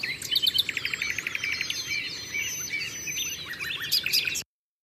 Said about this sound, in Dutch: als je aan Frankrijk denkt, dan denk ik ook voornamelijk aan de nachtegaal, de rossignol.